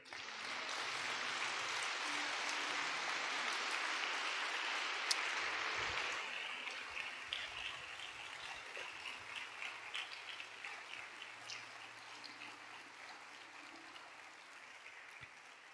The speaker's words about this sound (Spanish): Puede dar un aplauso a Dios.